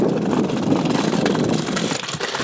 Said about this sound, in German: Wunderbar, was ihr so rattern hört, ist das Kopfsteinpflaster hier.